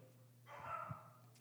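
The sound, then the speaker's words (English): A single muffled dog bark, soft, rising briefly over a steady low hum during a worship service, then fading away. “that, was, that was a dog for those of you online that didn't hear.”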